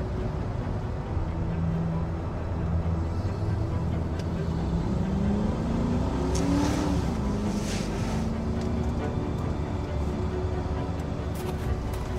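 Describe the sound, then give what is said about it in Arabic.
The engines of a group's cars drone steadily throughout as the cars arrive, with a noticeable rev that rises and falls in pitch midway as the vehicles draw closer, filling the scene with a continuous low rumble. “بص بص هناك دي عربيات المجموعة الحمد لله لقونا”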